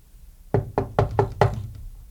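Five firm knocks on a door in quick, steady succession, fairly loud, with nothing else heard around them.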